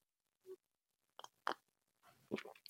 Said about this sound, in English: and so I'm sipping my coffee a lot.